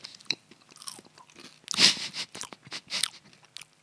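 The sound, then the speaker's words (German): Irregular, crisp crunching bursts of someone chewing crickets, with one louder crunch partway through and softer chewing clicks around it; no one speaks. “Ich esse aber Grillen.”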